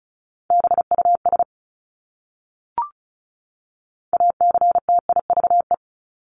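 Fast Morse code practice at 35 wpm, sending words from a list of the top 751-1000 common words: a steady mid-pitched beep keyed into quick dots and dashes, in two bursts separated by a pause with a soft click. No voices.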